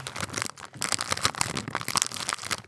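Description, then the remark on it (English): A crisp packet crinkles and crackles in a dense, irregular burst of sharp, bright rustles lasting a few seconds, with no talking over it. “that sounds crinkly as fuck.”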